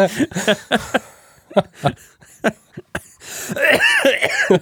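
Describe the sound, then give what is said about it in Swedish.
A burst of harsh coughs in quick succession, several hacking bursts in a row, ending in a longer raspy, wheezing throat-clearing sound. “fick han aids-hostan.”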